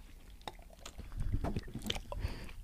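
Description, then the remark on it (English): Wet mouth sounds of someone drinking Vita Coco coconut water: a few slurps and gulps in an irregular rhythm, fairly quiet, with no talking. “gonna give it a, a, quick taste, really quick.”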